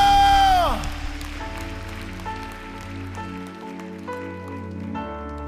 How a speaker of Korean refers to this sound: 우리와 영원토록 동행하실 우리 주님께 마땅히 받으셔야 할 만큼 최고의 영광과 감사의 박수 올려드립시다. 할렐루야!